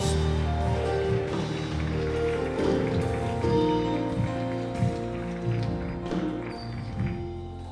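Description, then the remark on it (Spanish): An audience claps loudly and steadily in applause for the Lord, a dense, continuous wash of many hands, with sustained musical tones humming underneath throughout the clapping. “Alguien déle un aplauso bien fuerte al Señor.”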